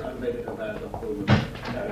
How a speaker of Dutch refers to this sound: Vooruit, open die deur. Zoals u wilt.